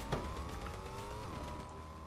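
A video game car carrying two opposing players drives past, its steady engine drone holding loud before the pitch dips slightly as it moves on. No one speaks.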